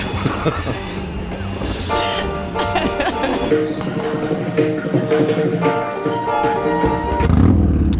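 A small motorcycle engine buzzes with a steady, whining drone for several seconds as it drives away westward toward Normandy, its tone holding fairly constant before a deeper rumble swells up at the very end.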